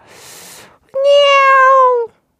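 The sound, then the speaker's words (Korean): A cat gives one long, loud, drawn-out meow that sags slightly in pitch at the end, preceded by a short, softer breathy rush of noise and a brief pause. “이것도 우리 고양이 친구들의 성대에 따라 다르지 않을까 싶고요.”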